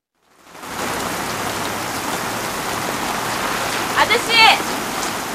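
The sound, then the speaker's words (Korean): Steady evening rain pours down outside a photo studio window in a dense, even hiss that fades in at the start and holds constant, with a few brief high-pitched chirps near the end. “저녁이 되어서도 비는 그치지 않고 다림을 기다리면서 사진관 유리창 너머로 빗줄기를 바라보며 정원은 노래를 흥얼거리기 시작합니다.”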